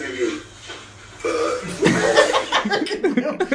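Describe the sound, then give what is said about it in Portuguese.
A man's long, drawn-out burp after lunch rumbles, rising in strength partway through and ending in a few gurgling bursts, with no other sound around it. “Foi mesmo aquele retinho tipo. Epá, acabei de almoçar.”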